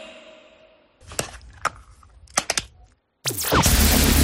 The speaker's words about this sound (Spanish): Efectivamente, era sacar la funda del móvil.